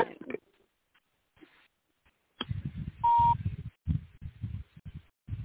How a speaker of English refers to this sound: I don't know what the beep is. We can't figure out where it's coming from.